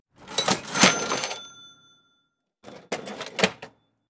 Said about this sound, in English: Cha-ching!